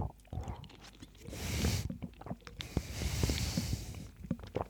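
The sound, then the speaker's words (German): Wet chewing and squishing of soft pieces in an aloe vera drink, with irregular clicks and smacks of the mouth, moderately loud and continuous over a few seconds with no talking. “Durch das Kauen hat man fast das Gefühl, man muss, man nimmt eine Mahlzeit zu sich, ne?”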